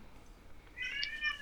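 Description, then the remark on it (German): A newborn baby boy lets out a brief, thin cry in the background, faint, rising for about half a second after a quiet stretch. “Nur, nur, so, man hört im Hintergrund gerade den kleinen äh,”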